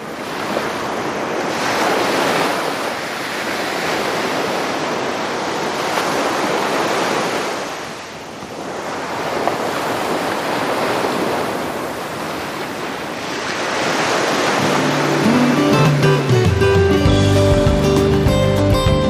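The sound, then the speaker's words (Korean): Ocean waves roll in as broad, hissing surges, a few long swells rising and falling steadily, with no voices; soft sustained music tones fade in beneath the surf toward the end. “자, 우리도 지금 시원한 밤바다에 나와 있다고 상상을 한번 해보죠.”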